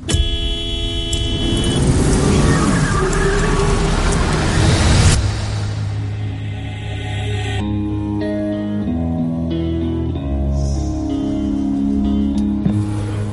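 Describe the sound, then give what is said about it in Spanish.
A car horn blares loudly and steadily for about five seconds, then gives way to softer, lower horn tones that shift in short steps. Nobody speaks. “¿Sabes lo que es un toquecito de cortesía, chaval? Suena así, suave.”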